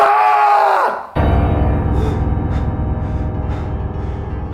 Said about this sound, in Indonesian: langsung berteriak sekencang-kencangnya. Suaranya seperti teriakan yang paling kencang yang pernah ia keluarkan.